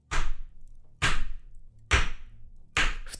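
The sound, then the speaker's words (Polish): A hammer pounds four times in a steady rhythm, each blow a loud, sharp impact with a brief ringing decay, with no voices. “Budzisz się w swoim pokoju na tym poplamionym sienniku, czymś białym, i słyszysz tylko takie walenie młotkiem.”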